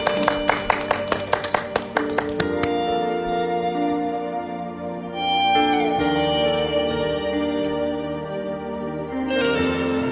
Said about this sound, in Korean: 박수로 예, 여러분 박수 한번 주세요.